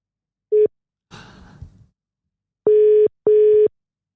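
phone call ringing tone

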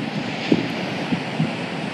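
ocean waves and surf

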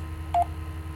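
telephone call tones

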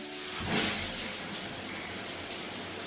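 shower water running

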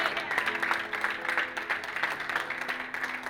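audience applauding

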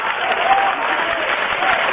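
audience applause

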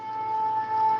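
shofar ram's horn blast

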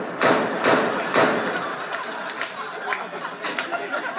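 gunshot

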